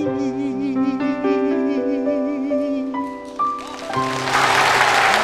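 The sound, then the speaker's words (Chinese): A held, wavering melody of sustained tones plays for about four seconds, then loud audience applause bursts in and swells as the music fades. “你们的掌声唤起了我的记忆，我的听力又回来了，欢呼声！”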